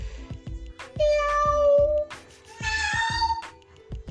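A domestic cat meows twice, each a long, drawn-out, fairly loud cry, heard over a steady rhythmic thumping beat in the background.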